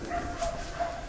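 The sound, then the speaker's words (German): A dog barks a few times in quick succession, moderately loud, in a deserted area with no tourists or people, against a faint outdoor background hum with no one talking. “Keine Touristen, keine Leute, man hört den Hund bellen und mich Treppenstufen steigen.”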